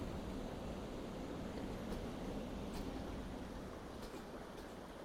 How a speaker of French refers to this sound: L'origine de, la pulperie, bien sûr, on, l'entend de loin, là, c'est la rivière. Hein, parce que la rivière, c'est la source d'eau qui va alimenter en énergie euh, les défibreurs, bon, les turbines,